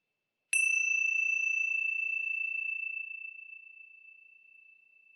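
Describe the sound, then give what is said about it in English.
A Ting Sha bell is struck once, giving a clear, bright high-pitched tone that rings on alone and slowly fades over several seconds. “And today, for the sake of variety, it's the Ting Sha bell.”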